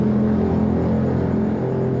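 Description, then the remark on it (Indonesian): A vehicle's exhaust rumbles loudly, a deep, throaty engine drone held steady for a couple of seconds with no speech over it. “podcast ini disponsori oleh Knalpot Bro bro. Knalpot bro suaranya bukan telinganya ya”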